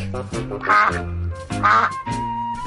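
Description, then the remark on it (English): A duck quacks a few times in quick succession, loud and nasal, with two especially strong honking quacks and a trailing softer one, no talking. “D is for duck.”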